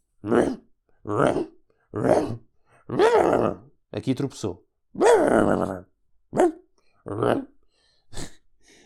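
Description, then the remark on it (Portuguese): A voice imitates a big, fat, Golden Retriever-style dog growling with each step as it walks, about nine short, fairly loud grunting growls in a steady rhythm spaced like footsteps, with a brief spoken remark partway through. “Um, Mano, e o cão, o cão a andar, a cada passo, a cada patada, era um rosnar.”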